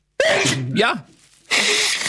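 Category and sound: human body sound, sneezing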